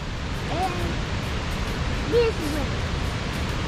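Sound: rushing waterfall water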